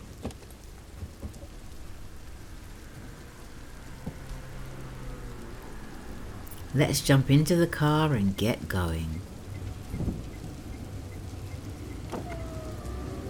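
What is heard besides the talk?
rain falling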